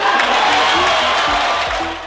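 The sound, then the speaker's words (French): A crowd claps steadily after a speech by French president Emmanuel Macron proclaiming the end of France's Africa policy, a dense, loud wash of applause with no breaks, with faint voices and cheers mixed in underneath. “Son discours est un succès, les applaudissements fusent.”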